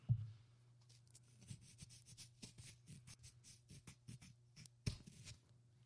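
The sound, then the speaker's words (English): A soundboard effect of a nine-ball rack breaking: pool balls break with a sharp crack, followed by a scatter of quick clicking collisions and rolling knocks, one louder clack near the end, all over a low steady hum. “That's a nine ball rack at the fucking trilogy, dude.”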